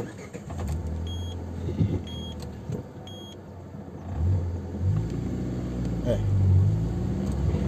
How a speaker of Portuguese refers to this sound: Pera aí, vou dar uma paradinha de carro aqui só pra